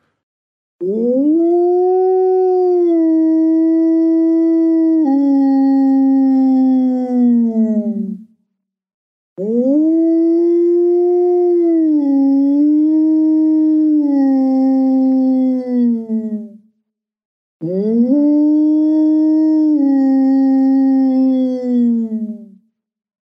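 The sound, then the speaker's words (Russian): A person imitates a low-pitched polar wolf howl with a big frame drum, three long sustained loud howls with steady tone and slight pitch dips, each several seconds long, separated by short pauses. “И, в общем, берут этот бубен здоровый и начинает выйти уже полярным волком. Сейчас такой будет уже более низкий звук.”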